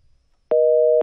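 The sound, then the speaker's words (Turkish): A single loud beep of a telephone busy signal after a caller hangs up on a phone-in call, a steady two-pitch tone lasting about half a second, sounding alone after a brief near-silence. “Evet kapattı”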